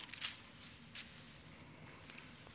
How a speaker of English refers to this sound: I love to hear pages rustling.